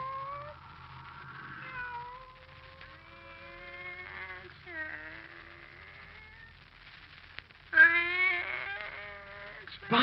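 A pet cat named Kitty, Barbara's pet, meows in long, wavering, drawn-out cries that run almost continuously, growing louder and more insistent toward the end over a faint low rumble.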